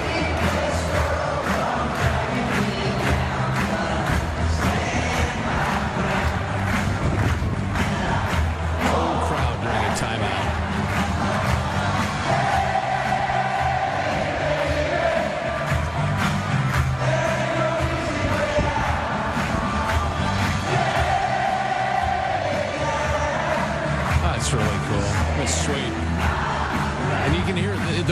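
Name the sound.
football stadium crowd roaring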